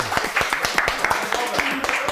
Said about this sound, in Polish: Ale tutaj po mikrofonach idzie te brawa. Tak, i bardzo dobrze, tak ma być.